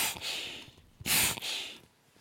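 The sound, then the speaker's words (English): Three breathy bursts of rushing air, like air being squeezed out of headphone ear cups, each a soft hiss lasting about half a second, the middle one loudest, with no talking. “you can squeeze them and all the air comes out of the phone.”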